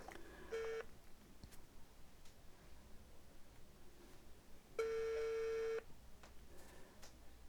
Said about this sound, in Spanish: Está marcando. Bip. Algo me dice que nuestro querido invitado sorpresa no nos va a contestar.